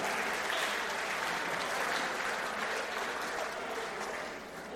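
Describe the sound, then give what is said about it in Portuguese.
An audience applauds a joke, clapping steadily in a dense wash of many hands at a fairly even loudness before tapering off slightly at the end. No voices stand out. “Vamos aplaudir essa piadinha.”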